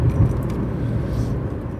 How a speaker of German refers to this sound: Und jetzt fahre ich hier in einem etwa ein Jahr altem Ford Focus Diesel durch die Gegend. Bin mal gespannt, der Hintergrund, also die Atmo, wie die in dem Auto klingt, aber das Fahren ist auf jeden Fall schon mal super.